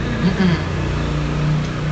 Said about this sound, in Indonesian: jadi motor lewat-lewat ya kita maklum ya di, uh-uh. agak di pinggir jalan ya iya.